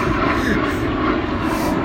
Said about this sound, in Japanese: だからなんでこんな飛行機飛ぶかな。